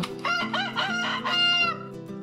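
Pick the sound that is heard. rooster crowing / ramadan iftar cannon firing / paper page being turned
rooster crowing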